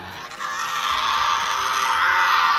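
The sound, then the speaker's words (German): A Tasmanian devil in Tasmania screams continuously, a harsh, raspy, high-pitched screech that stays loud and unbroken for a few seconds with no talking over it. “Da brüllt nämlich dieser Kollege ziemlich rum, der tasmanische Teufel.”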